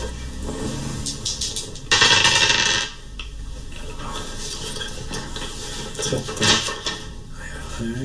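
Dice rolled for a game roll clatter and rattle across a hard tabletop, a burst of quick clicks that bounce and settle, followed by a few scattered taps, fairly clear.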